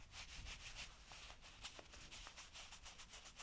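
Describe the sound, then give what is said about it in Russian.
Soft, continuous rustling of nylon Nike beach shorts, quiet, with repeated brushing swishes as the material is rubbed and handled; no voices. “Это мои пляжные шорты, они шуршащие.”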